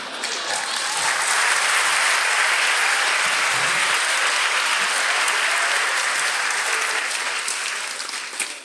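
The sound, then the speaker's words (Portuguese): Steady audience applause fills the whole stretch, a dense crackle of many hands clapping at an even, loud level that thins slightly near the end. No one speaks over it. “Vocês estão aplaudindo a vagina da minha mãe.”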